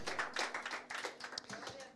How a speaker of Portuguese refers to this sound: Você pode dar uma salva de palmas aqui?